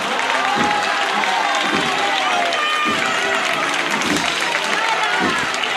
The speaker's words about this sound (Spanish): En la estrechez se le grita guapa, viva.